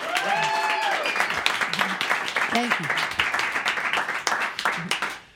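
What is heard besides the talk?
audience applauding and clapping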